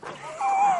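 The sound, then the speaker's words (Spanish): A single drawn-out yawn, voiced and breathy, its tone sliding and rising slightly in pitch before trailing off after a brief moment, moderately loud with no speech over it. “Porque ha habido un bostezo.”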